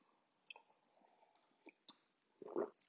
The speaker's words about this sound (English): Coffee sip.